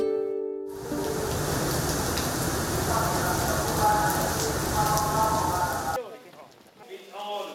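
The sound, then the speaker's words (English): Steady, nonstop rain pours down in a dense, even hiss for several seconds, a week after a lantern festival, framed by brief snatches of a voice speaking just before it begins and after it cuts off. “It's been a week since the Lantern Festival, and the rain is nonstop, but that doesn't dampen the spirits of these volunteers.”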